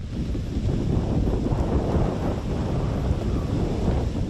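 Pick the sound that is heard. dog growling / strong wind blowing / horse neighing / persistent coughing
strong wind blowing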